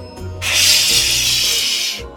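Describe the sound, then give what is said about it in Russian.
A large grey goose hisses angrily at a chick in one long, breathy burst lasting about a second and a half, loud, with no talking over it. “Большой серый гусь сердито посмотрел на цыпленка и зашипел.”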